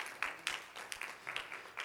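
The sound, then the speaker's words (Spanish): An audience in a church applauding: a fairly soft, steady wash of many hands clapping, with sharper individual claps popping out irregularly throughout and no voices on top. “Denme un aplauso fuerte, Señor, por usted, por favor.”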